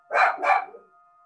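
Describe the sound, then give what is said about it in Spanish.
The speaker's dog barks twice in quick succession, two loud, sharp woofs that fade into a brief echo, with no voices. “Me van a perdonar, pero el perro es perro.”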